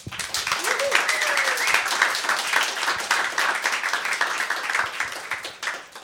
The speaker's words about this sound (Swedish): Tack så mycket. En stor applåd.